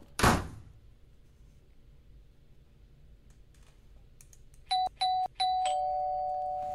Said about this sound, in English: Oh, someone's at the door.